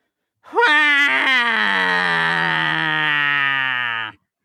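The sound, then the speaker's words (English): A voice imitates a squeezed rubber chicken, standing in for the sound of a bus running over Rudy Giuliani: one long, strained, nasal squeal with a sharp rising start, held steady and loud for about three and a half seconds before cutting off. “There's got to be it's got to sound a lot like a rubber chicken getting squeezed.”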